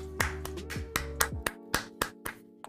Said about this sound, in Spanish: Fuerte el aplauso